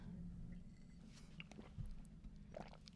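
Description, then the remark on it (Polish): Someone drinks water: a few soft sips and swallowing gulps, quiet and intermittent, over a low steady background hum, with no talking. “Ja się wody napiję w tym czasie.”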